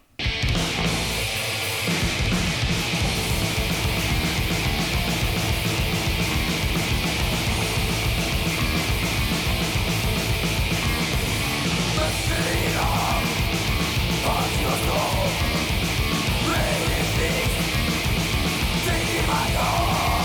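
A metal song blasts loud and dense after a brief quiet start, with rapid pounding drums, a wall of distorted guitar, and harsh yelled vocals over the top.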